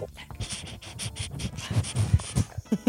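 A dog pants rapidly and steadily close by, quick breathy huffs repeating in an even rhythm for a few seconds with no one speaking.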